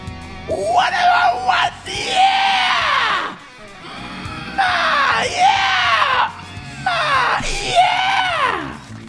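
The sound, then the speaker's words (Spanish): A monkey yells loudly and shrilly, letting out three or four long, rising-and-falling calls separated by short pauses. “Los otros monos no oyen esto.”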